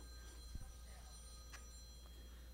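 A telephone rings faintly, its steady electronic tone sounding thin, with a brief soft clatter partway through and no one speaking.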